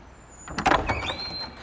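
A short mechanical clatter and rattle of a door being opened by a man, followed by a faint rising whine, with no voices.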